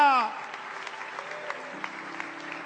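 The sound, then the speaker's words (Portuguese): A church audience applauds the name of the Lord during worship, steadily, a dense wash of many hands clapping at an even level with scattered sharper claps standing out, following a brief fading tone at the start. “como igreja que ama a Ti, nós te adoramos e aplaudimos o Teu nome, porque Tu és digno de honra e de glória.”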